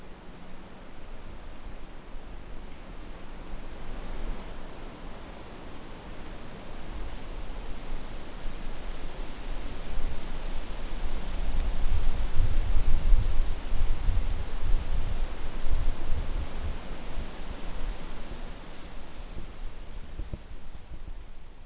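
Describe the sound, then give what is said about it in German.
European beech leaves rustle steadily in the wind, a dense, hissing wash of sound that swells in a stronger gust midway with a low rumble, then eases back. No voices. “So wird sie in vielen Gegenden Europas auch als Windschutz an den Westseiten der Häuser angepflanzt, wo das Rascheln ihrer Blätter zu hören ist”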